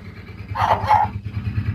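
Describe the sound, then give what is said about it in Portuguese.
A person barks at a dog, letting out two quick bark-like yelps over a steady low rumble in the background. “Você tá quem tá é que tá é latindo pro cachorro?”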